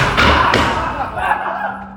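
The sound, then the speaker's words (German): A door slams shut hard, a heavy booming thud quickly followed by a second knock, then a low rumbling tail as the noise fades with faint voices underneath. “Boah, nee, vertraue keiner Tür, ne?”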